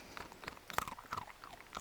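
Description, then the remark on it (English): A dog named Euro crunches a biscuit, a quick run of sharp, irregular crunching bites with wet chewing between them, fairly quiet and with no talking. “You can hear the sound of Euro crunching.”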